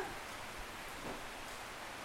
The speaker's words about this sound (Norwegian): Å, det var skikkelig regnlyd også. Det ble bra. Det ble høljeregn. Ja. Det ble god ASMR.